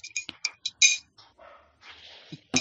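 Several sharp, bright clinks of glass being handled as tea is prepared, with a dog named Nancy barking faintly outside, muffled.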